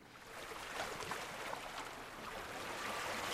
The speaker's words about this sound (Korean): 우리는 해운대로 택시를 타고 갔지 초겨울쯤이라 해운대 밤바다는 한적했습니다. 가끔 보이는 연인들의 발자국 소리와 파도 소리만이 우리와 함께하고 있었습니다.